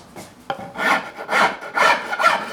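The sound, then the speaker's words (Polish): A different file rasps across wood to level it, in four steady, rough strokes, each a gritty hiss that swells and fades, preceded by a sharp tick as the tool meets the surface. No one speaks. “A teraz weźmiemy pilnik zupełnie inny, inaczej.”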